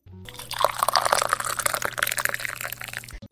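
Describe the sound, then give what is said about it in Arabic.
Water pours from a large bottle and splashes steadily for about three seconds, with bright gurgling and trickling over a faint low hum, then stops abruptly. “bring your coffee, your soda, de préférence دبوزة كبيرة متاع ماء وإجا اركش معايا”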